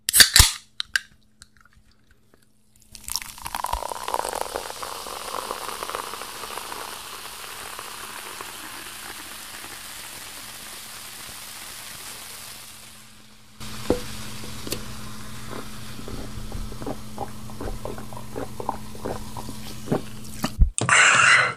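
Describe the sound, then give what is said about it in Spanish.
Someone sipping a cold fizzy soda on a hot day: a steady carbonated hiss, then a stretch of crackling bubbles with rapid tiny pops. No one speaks. “Pero por lo mientras estamos tomando una sodita o un refresquito, una agüita fría para este perro calor que, uff Uf, vamos a dar otro trago.”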